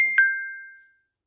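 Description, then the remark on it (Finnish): A short two-note electronic chime from a mobile phone, a quick bright tone followed by a slightly lower one that rings out and fades within a second, clear with no talking. “Hups. Toi oli mun puhelin.”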